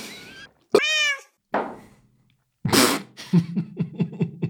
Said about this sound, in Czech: tam jsou mňoukance